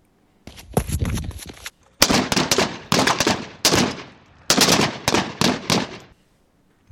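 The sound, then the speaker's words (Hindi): A loud burst of gunfire: roughly ten sharp shots fired in quick clusters with brief pauses between them, and no voices; Captain Jaidev firing ten rounds at a terrorist. “वो गोली सिर्फ उनके गाल को हल्की सी खरोंच पहुंचा कर निकल गई और कैप्टन जयदेव ने आतंकी पर दस गोलियां दाग दी”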